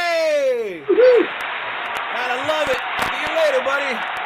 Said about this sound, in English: The crowd goes wild.